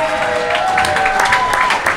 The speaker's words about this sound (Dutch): Applaus! Applaus!